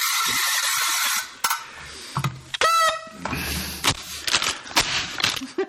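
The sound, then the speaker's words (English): Party noisemakers blare in a chaotic burst: a loud buzzy blast, then reedy honking toots and a stacked, wavering horn note, with scattered clicks and rattles mixed in. “All the noisemakers have been done, and we're down our last glass now.”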